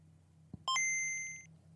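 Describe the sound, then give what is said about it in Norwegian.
A Game Boy handheld's startup chime: a soft click, then a bright two-note electronic ding whose higher tone rings for under a second before fading, over a low steady hum. “Ah, det er en nydelig lyd. Gameboy.”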